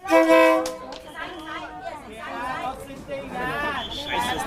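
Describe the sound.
A loud horn blast opens, followed by a steady bustle of many voices chattering as a train rolls slowly through a packed crowd in a market, passing close enough to touch with an elbow, with another horn-like tone near the end.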